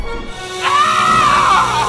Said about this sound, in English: Wow. He screams like a little girl.